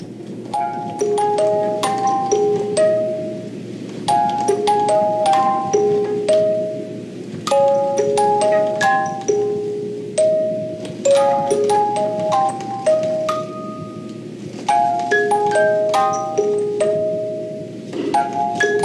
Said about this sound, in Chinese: 我们下面就来听听音乐盒当中的真实的莫比乌斯带实验。你听到的就是一条经过扭转后的莫比乌斯指环所播放的声音。